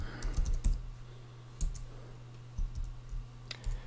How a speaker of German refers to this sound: Ach, man darf gar nicht so lange tippen. Das ist ja eine blöde Software.